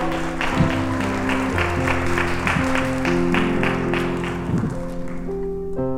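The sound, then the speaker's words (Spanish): A crowd applauds a woman, clapping steadily for about six seconds, a dense, even patter of hands over sustained musical tones, with no one speaking. “Un aplauso a esta hermosa mujer que me tiene enamorado.”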